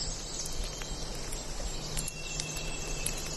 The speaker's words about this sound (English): Underneath the singing birds and drizzle of rain, we can still hear a hum coming from the visitor center half a mile away. So we're out of sight of the visitor center, but you can still hear that hum if you listen. Very faintly.